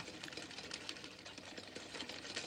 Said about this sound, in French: Excuse-moi. Je cousais un tout petit truc. Je peux pas m'empêcher de coudre quand j'écoute.